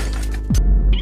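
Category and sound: sound effect, glass shattering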